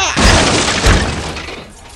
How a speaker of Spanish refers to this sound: Con estruendo soberano, Robin se arroja contra la puerta que cede destrozada entra espada en mano.